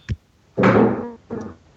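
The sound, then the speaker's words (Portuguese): A brief low thump, then a louder, ringing crash that fades over half a second, followed by one smaller knock, as someone falls off a chair with furniture clattering. “Opa, caiu da cadeira.”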